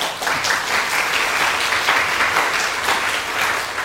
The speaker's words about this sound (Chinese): 哎，现在不要拍手那么快